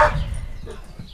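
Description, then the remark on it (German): A dog lets out one sharp, loud bark at someone passing by the property, followed by softer low grumbling and scattered faint yips as the barking trails off. “Es kommt jemand am Grundstück vorbei.”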